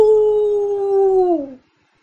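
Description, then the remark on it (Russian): A single loud, wolf-like howl from a person, howling like wolves at a full moon and crying out, holds a steady, fairly high pitch for over a second, then slides downward and cuts off into silence. No talking. “и тут, испугавшись, что тебя не услышат ты, изо всех сил, вспомним, как воют волки на полную луну, вдруг взвыл и закричал, набрав в измученные легкие больше воздуху.”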